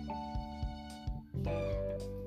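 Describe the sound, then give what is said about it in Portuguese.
A cat meows a few times, clear, over a steady musical background with soft percussive taps; no one speaks. “Mas logo saiu ronronando: miau, miau, miau.”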